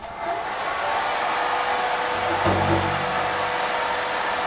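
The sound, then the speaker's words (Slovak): A hair dryer runs steadily, a loud continuous airy whoosh with a faint motor whine, its tone shifting slightly midway as if moved. It is being used on a drum to tune it, held a little away from the drum. “A keď neznie dobre, zapojil som sušič a”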